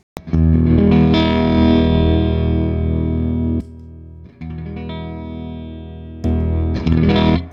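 Heavily distorted electric guitar played through a fuzz pedal turned all the way up to maximum gain, thick saturated fuzz, sustained chords ringing out loudly, a brief drop to quieter sustain, then a final loud strum; no voices.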